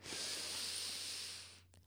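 A single long, deep breath drawn in with a steady airy hiss that lasts over a second and a half, followed by a brief pause; no talking.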